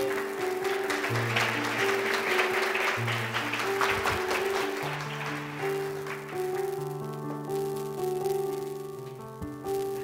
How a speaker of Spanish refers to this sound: Un aplauso